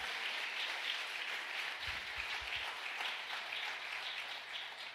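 A church audience breaks into loud, steady applause during a sermon, many hands clapping together in a dense, continuous patter that holds for several seconds with no one speaking.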